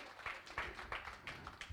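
Brief applause for two people from just a few hands: sharp, crisp claps landing in a loose, steady rhythm, about three per second, fairly soft and with no voices.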